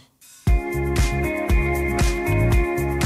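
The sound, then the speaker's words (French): A pop song, the first single from a 2016 album, kicks in after a brief quiet lead-in, loud and full, with punchy drum hits on a steady beat under sustained synth chords and bright harmonic layers. “la chanson, qui était une bonne chanson, la preuve, on va l'écouter dans quelques secondes sur RTL”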